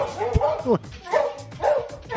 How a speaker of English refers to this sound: barking. The nonstop energy.